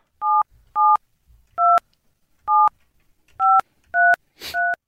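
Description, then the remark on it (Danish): Seven crisp telephone keypad tones beep in an irregular sequence as another phone line is dialed, each a short dual-pitched chirp, with a faint rustle at the end and no talking. “vi tager lige en anden linje her”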